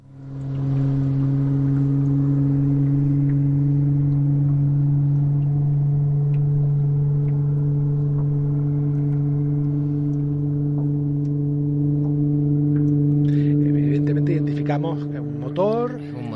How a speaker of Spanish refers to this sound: el sonido de un barco que, que, ha captado, que es muy interesante cuando sepamos a qué distancia se puede escuchar este barco, que ni mucho menos está a tres metros. Vamos a escuchar cómo se escucha un barco bajo el agua.